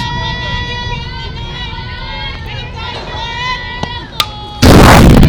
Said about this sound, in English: That ball fouled off right here in front of us. You heard that big boom right off the foul here, uh, off the uh, fence in front of us. That's right next to our mic field microphone.